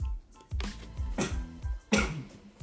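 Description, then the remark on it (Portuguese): An abrupt sneeze with sharp, breathy bursts of air and a few short exhalations around it, fairly loud against a quiet background, with no talking. “Desculpa que eu espirrei”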